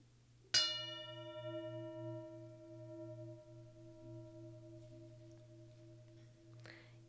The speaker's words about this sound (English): And while you are doing that, I am going to bang on this beautiful singing bowl. Okay. For your sound and ear pleasure.